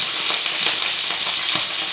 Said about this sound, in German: So, ich gebe jetzt mal die Paprika in das heiße Öl und drehe sofort zurück das spritzt jetzt ein bisschen, weil ich sie vorher gewaschen habe.